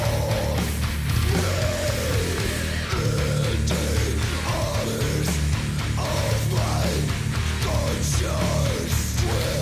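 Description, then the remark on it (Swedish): A loud, dense metal track, released in April on the Listenable label, plays continuously, with heavy distorted guitars and a booming low end under raw, harsh yelled vocals that rise and fall in rough phrases. “Rå sångare.”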